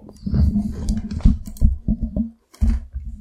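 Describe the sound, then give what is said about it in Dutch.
Wet, crunchy munching on half a cucumber: a run of crisp crunches and chewing clicks, loud and irregular, with a short pause before the chewing resumes. No one speaks. “Ja, we gaan nu al jouw komkommergesmikkel opnemen.”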